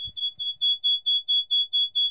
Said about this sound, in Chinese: 呀，遥控器，飞船遥控器被被我压住了。 什么压住了？ 喵卷卷弯腰看了看阿三，他的话音刚落，大家就听到旁边响起了一阵刺耳的滴滴声，